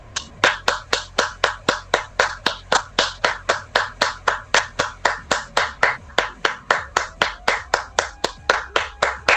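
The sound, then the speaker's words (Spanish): Applause after a poetry reading on a radio show, in the form of steady, evenly spaced claps, about three per second, crisp and fairly loud, continuing for around nine seconds with no voices. “¡Aplausos, por favor!”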